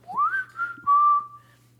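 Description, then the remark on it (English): A short whistled melody ending a song after a piano motif, clear: a quick rising phrase, a brief dip, then a long steady held note that fades out, with a faint low hum underneath and no talking. “And I think something is really interesting is the song ends, it plays the piano motif and then it goes into a whistle.”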